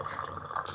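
A drink being poured into a glass, a short steady trickle of liquid, with faint voices murmuring in the background.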